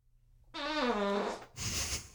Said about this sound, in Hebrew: אנחנו הפודקאסט הראשון מישראל. כן. שמה, שמה. שמשמיע נפיחה.